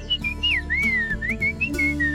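Bright, cheerful human whistling carries a lilting melody with smooth gliding notes, clear, over a soft, steady low background tone.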